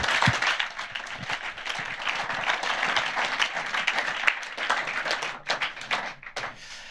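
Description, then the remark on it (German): Many people applauding warmly and steadily, a dense wash of many hands clapping at once that holds for several seconds before thinning out near the end. “Gebt ihm einen warmen Applaus”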